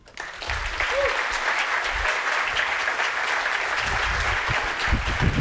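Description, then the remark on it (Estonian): Sustained, dense applause from a sizable audience welcoming a speaker onto a stage, steady and loud throughout, with a faint cheer or voice briefly rising near the start. “teeme hästi suure aplausi”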